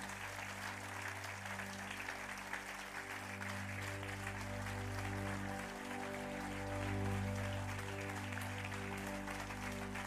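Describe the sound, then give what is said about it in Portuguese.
A church audience applauds a couple being honored, steadily for about ten seconds, a dense wash of many hands clapping at an even level, with a low sustained musical tone humming underneath and no talking. “Uma salva de palmas para o Samuel e para a Isabel.”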